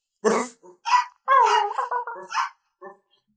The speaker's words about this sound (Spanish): Perros.